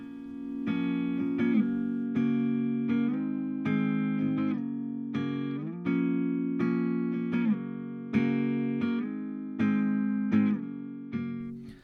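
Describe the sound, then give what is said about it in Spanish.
A steady acoustic guitar strumming chords in an even rhythm, with bright sustained tones and regular attacks, played alone without any voices; an acoustic recording of the original idea for a song. “Eh, vamos a escuchar la acústica, eh, grabada por mí, obviamente, eh, de la idea original.”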